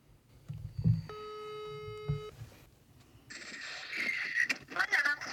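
A phone's outgoing ringback tone sounds once, a steady electronic buzz lasting about a second over low background murmur, followed by louder rustling and hiss.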